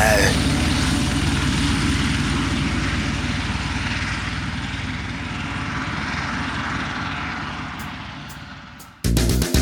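A helicopter's engine and rotor roar steadily and loudly, with a rapid low thumping beneath a broad whine, easing slightly midway before an abrupt burst of clattering noise at the end.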